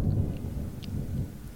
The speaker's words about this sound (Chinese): 春雷炸响，雷声轰隆隆的打下来。